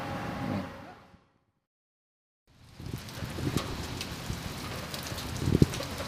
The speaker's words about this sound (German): Der nächste Tag beginnt mit Regen.